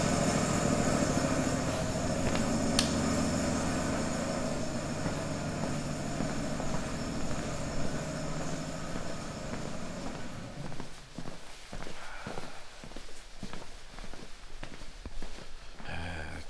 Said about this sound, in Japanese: ある程度あのお酒があの絞られてあのタンクにたまると、あの正式なあの貯蔵用のタンクの方に、あの自動的にお酒を送ってくれるポンプの音です。